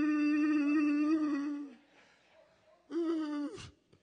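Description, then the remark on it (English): A person imitates a hound dog's long howl: one steady, drawn-out wail, a short pause, then a shorter second howl that slides down in pitch at the end. Fairly loud, with no other sounds. “You know how hound dogs can make those long sounds.”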